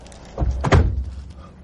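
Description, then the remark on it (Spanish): A door opens as a person steps out, with a low thunk and a brief rattling clatter, followed by a fading rumble. No voices are heard. “Tres abre la puerta y sale.”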